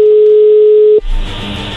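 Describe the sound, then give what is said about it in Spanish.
A steady, single-pitched telephone dial tone hums for about a second as a call is placed, then cuts off abruptly and gives way to a louder burst of line noise and muffled hiss. “Compadre, te voy a demostrar que ahorita le llamo y me la ligo, ¿está bien?”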